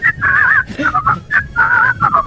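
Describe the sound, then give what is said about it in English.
A person whistles a short, warbling melody into the mic, two similar phrases with a wavering, trilling pitch and brief pauses between notes. “Whistle into this.”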